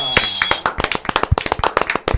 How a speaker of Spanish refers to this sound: Así que recibimos con un aplauso